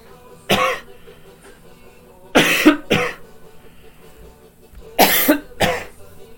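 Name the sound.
coughing fit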